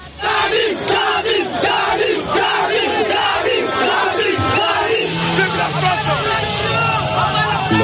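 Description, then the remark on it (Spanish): A large crowd at a weekend demonstration in Niger in favour of a coup d'état shouts and chants in a loud, continuous roar of many voices, with rhythmic rising cries and dense babble filling the whole stretch, unbroken. “Así se ha escuchado la manifestación en Níger este fin de semana a favor del golpe de Estado en la que han atacado la Embajada de Francia en la capital nigerina.”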